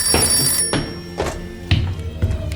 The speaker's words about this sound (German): als das Telefon klingelte.